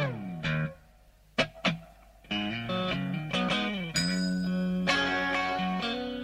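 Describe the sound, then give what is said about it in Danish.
Electric guitar with a light, gritty overdrive plays ringing chords with an ornamented, curling approach and short picked flourishes, some notes sustaining and others cut short, loud with no voices. “Og øh, noget af det, han også har i sin guitar, det er den der krøllede tilgang til akkorder.”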